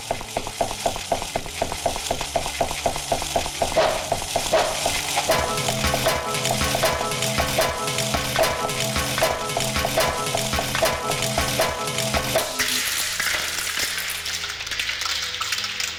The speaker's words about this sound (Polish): Ten dźwięk to jest uderzenie bronią w krawędź mapy. Tą konkretną oczywiście.